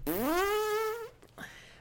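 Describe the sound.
A person blows a loud, buzzy mouth fart lasting about a second, its pitch rising slightly before cutting off, followed by a brief breathy sputter and a short trailing sound.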